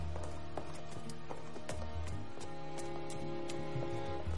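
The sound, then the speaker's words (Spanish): A horse's hooves clip-clop in an uneven rhythm of sharp, distinct knocks as a servant prepares a horse, sounding over a steady bed of sustained music with no voices. “Un criado prepara un caballo.”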